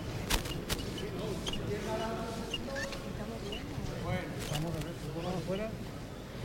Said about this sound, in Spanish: este son los sonidos los primeros pasos de del paso de la Virgen de la Esperanza Macarena